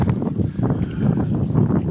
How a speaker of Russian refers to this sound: Извиняюсь, опять у нас о, сильный ветер.